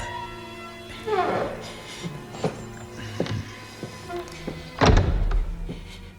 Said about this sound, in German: Als ihm nach mehrmaligem Klingeln noch immer nicht geöffnet wurde, griff der erste Detektiv zielstrebig nach seinem Dietrich und schon nach wenigen Handgriffen öffnete sich quietschend die schwere Eingangstür.